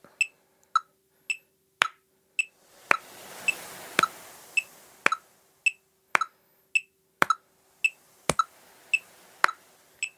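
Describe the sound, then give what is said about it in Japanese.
A steady metronome used for rhythm practice ticks alone at a moderate tempo, sharp higher clicks on the beats alternating with lower-pitched clicks on the offbeats, crisp, with a faint hiss swelling briefly in the middle. “大体ねこうやってリズム感を覚えるんだよって言われるんですけどはあって感じですよね なかなか難しいですよメトロノームで練習しようと思ってもつまんないですしね”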